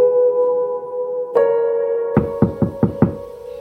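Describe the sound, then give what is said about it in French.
A quick series of five firm, distinct knocks on a door, following a single earlier click, with a steady low hum running underneath and no one speaking. “Oui, entrez.”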